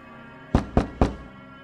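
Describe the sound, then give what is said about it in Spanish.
Three firm knocks on a street door at four in the morning, in quick, even succession, loud, each one a dull wooden thud, followed by quiet. “En momentos en que se oían las campanadas de la hora, golpearon a la puerta de la calle”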